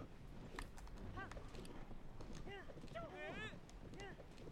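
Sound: horse hooves galloping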